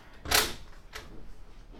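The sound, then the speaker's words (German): A window being shut: a loud clunk of the frame followed about half a second later by a softer click of the handle, then quiet background noise. “Ich hab das Fenster kaputt gemacht. Das klappt eben für immer offen”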